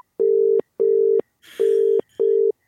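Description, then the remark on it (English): A telephone ringback tone sounds as a phone call is placed, four steady, evenly spaced pulses, each lasting about half a second with short gaps between, clear with no voices. “Let's get the phone going.”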